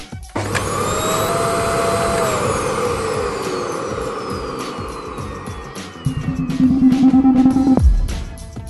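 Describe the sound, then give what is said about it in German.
A vacuum cleaner switches on with a rising whine and runs loudly with a steady roaring hum, its pitch shifting slightly before a louder surge near the end, then it cuts off abruptly. “In Colorado ist es verboten, den Nachbarn den Staubsauger auszuleihen.”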